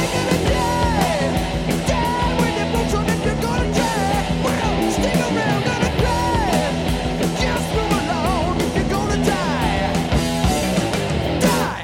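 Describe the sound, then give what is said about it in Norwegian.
The closing stretch of a loud, full-band song plays continuously with dense instruments and held notes, then drops away right at the end. No one talks over it. “Vi må høre eh, avslutninga nå på …”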